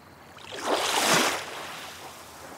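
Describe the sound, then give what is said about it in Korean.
A single wave of dark blue sea surges in forcefully against rocks with a broad, hissing rush of water, swelling quickly, peaking, then receding into a softer wash, with no voices. “검고 푸른 바다가 세차게 밀려와 바위에 몸을 부딪힌다.”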